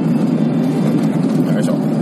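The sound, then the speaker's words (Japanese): A steady rumble of car engine and road noise heard from inside a moving car holds throughout, with a brief hiss as another car passes near the end. “今、今まさに、今、すれ違いましたね。”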